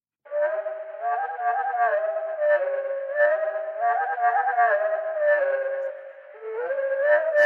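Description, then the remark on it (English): A slowed-down veery thrush song: low, continuous, wavering tones that swell and dip in a repeating long-note-then-short-note pattern, heard alone for several seconds, almost howl-like. “When the veery song is slowed down, you can spot how it sings a long note followed by a short one and then repeats that pattern.”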